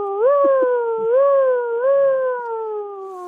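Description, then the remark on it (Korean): A child's voice imitates a police car siren with a steady, sustained wail that rises and falls gently in several slow swells, loud, lasting about three seconds. “약간 좀 그 경찰차 소리는 아저씨가 듣기에는 조금 안 비슷했어.”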